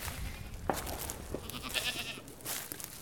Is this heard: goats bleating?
yes